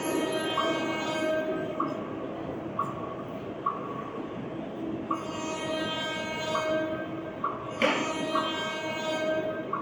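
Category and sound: vehicle, train passing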